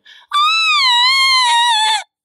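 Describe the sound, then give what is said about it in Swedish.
A voice imitates a demonic roar, though it comes out as a loud, high-pitched sustained shriek lasting under two seconds, preceded by a brief short vocal sound, with no other talking. “Så att jag, jag tar och vrölar och bara morrar och sen gör jag ett avgrundsvrål.”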